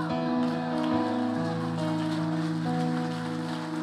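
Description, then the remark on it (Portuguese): A crowd at worship claps for Jesus in a steady, dense, continuous patter that fills the whole stretch, with sustained keyboard chords ringing underneath. “Aplauda Jesus de verdade, irmão, pelo amor de Deus.”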